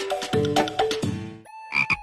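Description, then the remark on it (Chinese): A frog croaks in a quick series of raspy, buzzing calls, several pulses in the first second and a half, then two shorter, higher croaks after a brief pause, with no talking. “他认为青蛙能数钱”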